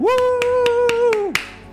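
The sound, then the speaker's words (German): About six sharp, evenly spaced claps in a steady rhythm as a whole group of dwarves applauds stew at a feast, under a single long, sustained vocal whoop that holds one pitch and then trails off. “Applaus aus der ganzen Zwergenriege.”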